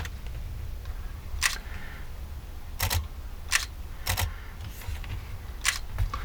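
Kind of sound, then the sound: tool, camera shutter clicks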